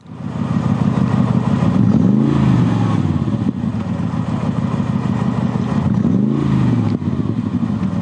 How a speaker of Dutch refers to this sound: Ja, het beste AMG-geluid. Eh, kijk, je hebt het beste, je hebt het mooiste, je hebt het geraffineerste. Maar ik vind nog steeds het beste AMG-geluid gewoon van de, A, de G55 AMG-compressor.